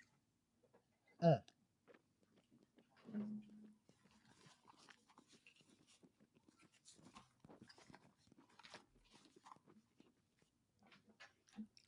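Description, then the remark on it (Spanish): Quiet wet mouth sounds of a mouthful of beer being swished and chewed around in the mouth, a run of small slurps and clicks following one louder gulp-like burst near the start. “Vas a coger un buche y vas a como quien dice, masticar la cerveza en la boca.”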